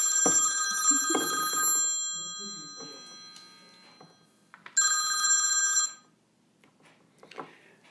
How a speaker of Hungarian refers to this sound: Úgyhogy, úgyhogy mi volt a kérdés, mert közben mint csöngel a kurva telefon, igen?